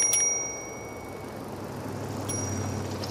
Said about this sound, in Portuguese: agora só se ouviam os carros a passar, ao longe, e o tilintar da campainha de uma bicicleta que se afastava.